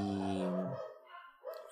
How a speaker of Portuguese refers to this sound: Desculpa pelos cachorros, gente.